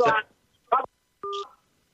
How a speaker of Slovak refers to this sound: Počkaj, ja ťa, ja ťa skúsim vytočiť odo mňa z telefónu. Toto zrušíme a uvidíme.